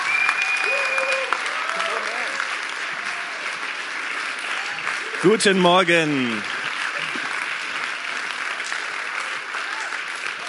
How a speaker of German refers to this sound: Lass uns gemeinsam aufstehen und ihn begrüßen mit einem großen Applaus.